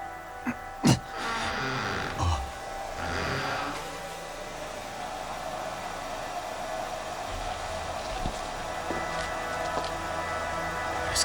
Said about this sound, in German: Der Föhn ist an, aber... Da ist keiner drin.